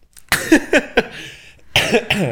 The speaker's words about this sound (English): Sorry, I'm coughing.